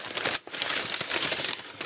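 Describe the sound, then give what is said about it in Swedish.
Paper rustles and crinkles steadily as a birthday gift, a cup, is unwrapped, a bright, hissy crackle with quick irregular bursts and a brief pause partway through. No one speaks. “Oj, vad det prasslar.”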